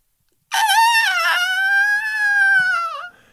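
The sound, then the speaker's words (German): A person imitates a whale call with a single long, high, tonal wail, wavering at first and then held steady for about two and a half seconds, fairly loud with nothing else around it. “Kannst du einmal nachmachen, wie so ein Wal, so ein Geräusch von so einem Wal?”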